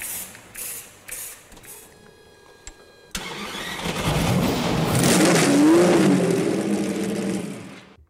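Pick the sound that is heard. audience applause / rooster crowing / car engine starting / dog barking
car engine starting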